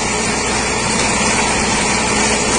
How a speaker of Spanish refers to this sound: Eh, obviamente de noche, ¿no? En el video. Mucha lluvia lo que escucho, ¿viste? Mucho, escucho mucho golpe de lluvia con viento combinado.